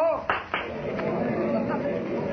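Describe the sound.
A stage magician claps his hands twice in quick succession, about a quarter second apart, to make a box vanish during his performance, followed by a steady low murmur of voices and background noise.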